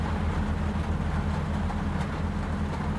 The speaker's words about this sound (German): ich weiß nicht, ob man das hört, das ist der Regen, der hier auf mein Dach klopft.